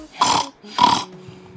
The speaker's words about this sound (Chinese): 比如说，不好的习惯是 snoring，snoring，打鼾。你睡觉的时候会打呼噜吗？